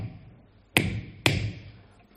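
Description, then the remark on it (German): Two sharp hammer blows on a nail, about half a second apart, each a bright metallic strike with a ringing tail that fades slowly. No voices. “Und wir werden ein paar Nägel einschlagen.”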